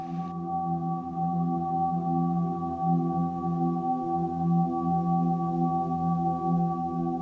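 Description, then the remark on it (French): A Windows computer startup chime slowed down 4000 times, stretched into a steady, dreamy drone of layered sustained tones that hums evenly and fairly loud for the whole stretch, with no voices. “Et une fois ralenti 4000 fois, et eh ben ça devient tout à fait planant.”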